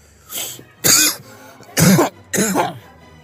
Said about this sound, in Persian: شملوف سرفه ای میکند ابروانش رو بالا میاندازد و با لحن جدی میگوید